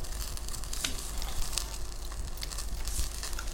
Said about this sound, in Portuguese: Corte lá a chouriça agora, homem. Isto ainda está a queimar aqui. Ó oh, oh, técnico, ouve-se o, cre o crepitar?